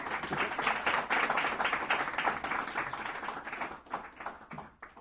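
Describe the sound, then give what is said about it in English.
A round of applause from a crowd: dense, steady clapping for about four seconds that thins out and fades near the end, with no voices over it. “Uh, so please have a big round of applause.”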